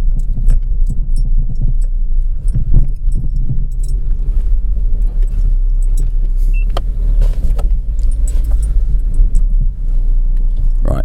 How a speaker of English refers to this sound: Cool. I can switch that noisy engine off. So hopefully you. Oh man, it's quiet.